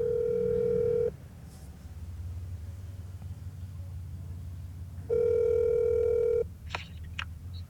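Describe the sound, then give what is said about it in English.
Two long electronic ringback tones of a phone call to a friend, placed on speakerphone, with a steady harmonic buzz, separated by a pause of low rumbling background noise; a couple of faint clicks follow the second ring. “Call Bob Shed and ask him to name some famous dogs.”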